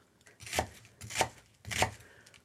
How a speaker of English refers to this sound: chopping an onion, by the way, for my next dish, which will be a classic Spanish dish found very often in tapas bars called tiger mussels.